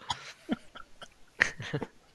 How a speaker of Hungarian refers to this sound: beleugatott az adásba.